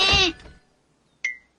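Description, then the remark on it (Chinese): A lamb hidden in a closet gives one short, quavering bleat, rich and wavering in pitch, then silence until a brief, thin high chirp sounds near the end. “现在注意听， 咩 声音是从哪儿传来的呢？”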